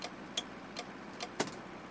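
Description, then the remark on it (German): A car's turn signal ticks steadily, five quick clicks about a beat apart, over the low hum of an engine inside the vehicle. No one speaks. “Er hat kein Ziel, setzt den Blinker.”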